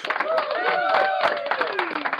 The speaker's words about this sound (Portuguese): Palmas para Adão Negro.